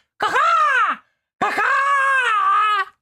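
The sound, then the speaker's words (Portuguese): A man's voice imitates a crow with two drawn-out, raspy caws, the first shorter and falling in pitch, the second longer and steadier, both loud and harmonically rich with no other talk. “também sei interpretar um corvo.”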